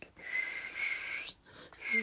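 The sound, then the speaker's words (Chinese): A mother makes a breathy, airy attempt at whistling: a thin, wavering tone around a steady pitch, blown in two long bursts separated by a short pause, mostly hiss with only a faint whistle coming through. “妈妈不会吹口哨，吹得好烂哦。”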